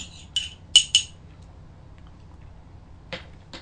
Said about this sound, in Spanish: Dicho esto, bueno, pues me voy a dar un segundo sorbito del día para pasar al otro tema.